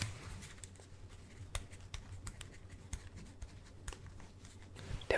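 Soft, scratchy scribbling of a pen on paper, quiet, with irregular little strokes and taps continuing for several seconds and no voices.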